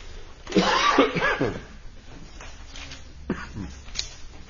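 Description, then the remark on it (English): A harsh burst of coughing, loud at first and then trailing into rougher, quieter hacking before a short final cough. “can you get cough drops on my desk? Thanks. Excuse me.”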